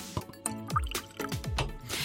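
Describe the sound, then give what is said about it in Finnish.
Liquid glugs and splashes as it pours into a glass, with uneven bubbling plops and a gurgling rhythm over about two seconds, fairly quiet overall. “Okei, okay, ennen kuin mennään suoraan surman suuhun, eli näihin kysymyksiin, joihin tullaan vastaamaan, niin täytetään lasi.”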